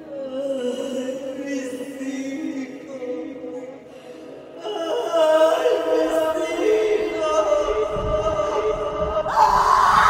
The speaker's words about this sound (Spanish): Y así, al disiparse la tormenta, en aquella noche iluminada por un tímido firmamento que observaba al hombre, se escuchó hasta el pueblo el grito que ha producido terror por siglos y generaciones.